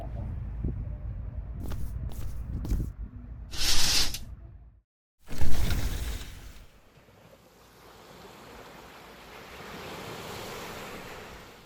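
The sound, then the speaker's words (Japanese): Rushing sea water washes past as a ship pushes through the sea at night under moonlight, with a couple of louder surging splashes early on before settling into a steady, hissing wash of waves churned aside by the moving vessel. “ここ船長室にもこうやって月明かりが漏れてきていますが私はここでこうやって波音を聞きながら過ごすのが好きなんです心がとても和むんです”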